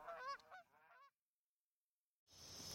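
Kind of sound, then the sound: bird, geese honking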